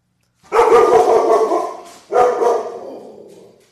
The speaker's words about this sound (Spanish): Sí, tenemos un perro también.